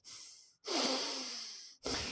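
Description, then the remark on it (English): A film sound-design effect imitating heavy breathing, heard during the hand's point-of-view shots: three loud, hissy breaths, a short inhale, a long drawn-out exhale, then another inhale, with brief silent gaps between. “and they also do they do this sound design thing that sounds like heavy breathing when you're when mm-hmm.”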